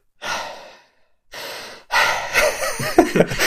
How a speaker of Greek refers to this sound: Παίρνω βαθιές ανάσες.